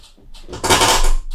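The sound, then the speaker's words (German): A chair creaks and clatters loudly as a person moves in it, a short burst of wooden knocking and rattling that swells midway and cuts off abruptly, with no one speaking. “Oh Gott, das war der Stuhl.”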